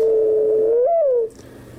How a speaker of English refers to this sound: Early in the morning, one might hear the mourning dove